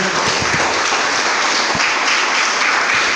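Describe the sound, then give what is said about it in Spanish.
An audience applauding the Lord in the morning: steady, dense clapping from many hands, loud and sustained throughout with no pauses, a few sharper claps standing out from the wash. “Denle un aplauso al Señor, por favor, en esta mañana.”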